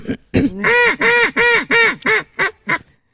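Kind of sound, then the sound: bird, geese honking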